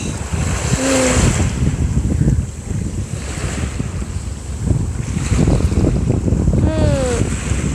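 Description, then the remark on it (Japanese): Ocean waves wash steadily onto a beach by the sea in broad, rushing surges, heavily mixed with gusty wind buffeting the microphone, plus a couple of brief high tonal cries; recorded in early autumn. “波の音すき”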